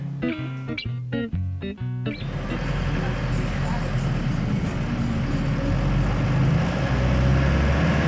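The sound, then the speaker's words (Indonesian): A city bus on the Tanah Abang–Matraman route, taking schoolchildren home after school, runs with a steady, loud low rumble and constant road-like noise that continues without a break, after a brief stretch of voice-like tones at the start. “Bus yang nganterin kita setiap pulang sekolah”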